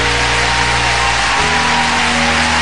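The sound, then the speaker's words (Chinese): A loud, steady roar of an arena crowd cheering for Chen Lu's flawless performance, which ended with a series of difficult jumps, fills the whole stretch without pause, with a low rumbling hum beneath it that shifts in pitch about halfway through. “听见现场的欢呼声呢，也证明了陈露她今天表现实在是非常非常的好。”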